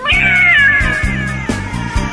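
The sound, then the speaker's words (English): A cat lets out a long, drawn-out meow that slowly falls in pitch, loud, with a steady low thumping beat pulsing underneath. “You turn back around, and staring you face to face in the mirror is a cat.”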